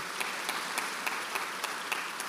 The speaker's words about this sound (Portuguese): Vamos dar um aplauso poderoso para Jesus, queridos. Isso é maravilhoso.